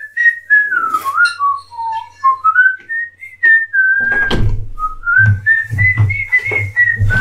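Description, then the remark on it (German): A person whistles a meandering, easygoing elevator-music tune, the notes gliding and wavering; midway, low thumping and rustling background noise joins under the melody. “mach mal Fahrstuhlmusik, während ich hier frage.”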